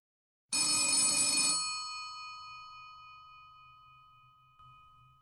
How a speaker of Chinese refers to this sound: 突然，桌子上的电话急促的响起来。